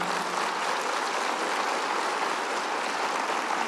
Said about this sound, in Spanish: Escuche la voz de Dios, aplauda, Señor, si va a aplaudir.